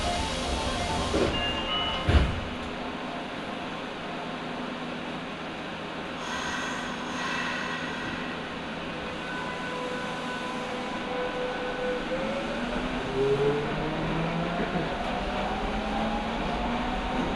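Inside a Nagoya Municipal Subway Higashiyama Line car rolling between stations on the way from Takabata to Fujigaoka in Nagoya, Japan: a steady low rumble of wheels on track with shifting whines and tonal squeals rising and falling, and a sharp clunk near the start.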